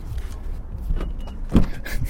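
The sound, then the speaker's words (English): A car's lock chirps briefly, followed by a dull mechanical clunk from the door, but the car fails to unlock, over a low outdoor rumble. No one speaks. “it locked me out. it beeped, but then it didn't unlock.”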